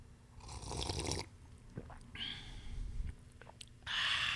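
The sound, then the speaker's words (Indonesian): Someone sips hot morning coffee from Glik Kopi Palasari, with three airy, hissing slurps separated by short pauses and small mouth and swallowing noises in between. No one speaks. “Kita mulai dengan ngopi dulu”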